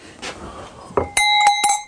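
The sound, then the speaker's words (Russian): A small cowbell, the kind hung on a cow's neck, rings, struck about three times in quick succession with a bright, metallic ring that lingers between strikes, after a brief knock. “А я, я кстати, видел очень много таких колокольчиков, их очень много э, продают, и не, не знал, честно говоря, что это такая за штука.”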